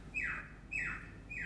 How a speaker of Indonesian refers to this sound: Suara itu suara burungnya genit kiu kiu kiu yeah. burungnya baper kok burungnya kayak calling ya yeah. makin kenceng gitu